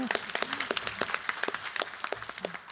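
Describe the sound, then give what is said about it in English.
A group of people applauding a new collaboration after a picture is taken, a dense, uneven patter of sharp hand claps that keeps steady for a few seconds, with faint voices murmuring beneath it. “And if we could have a picture, and now we can applaud.”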